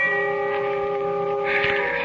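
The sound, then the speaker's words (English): A distant bell's long ringing tone hangs in the air, its steady overtones humming evenly at moderate volume, lingering and fading out without a new strike, with no voices present. “I closed my eyes, and the sound of a distant bell faded out as I thought.”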